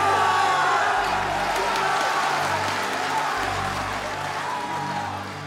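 A large crowd in a film scene about World War I cheers and applauds as students are sent from school to the front, continuously, a dense wash of clapping and shouting voices that stays loud throughout and eases only slightly toward the end.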